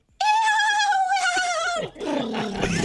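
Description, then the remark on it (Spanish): A hungry mare neighs loudly: one long, high, strained call that holds steady and then breaks into a rougher, sputtering tail. No other sounds are present. “Eso es una yegua con hambre.”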